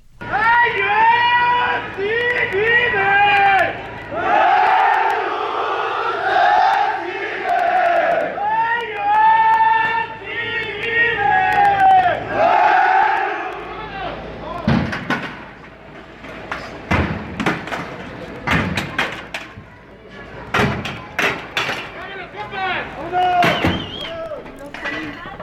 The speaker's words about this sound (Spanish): de la Escuela Normal Rural de Ayotzinapa, allá en Guerrero, protestaban en las inmediaciones del inmueble cuando intentaron entrar a la fuerza. Escuchemos cómo se, eh, pues cómo se vivían estos momentos hace algunas horas allá en Palacio Nacional.